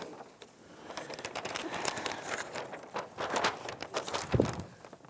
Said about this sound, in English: They usually hung out in our in our glove compartments, and if you were going on a trip, you would take out your glove compartment map and begin to unfold it.